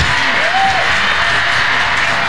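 A crowd bursts into loud, sustained applause with cheering and a rising whoop, the dense clapping steady throughout the short stretch.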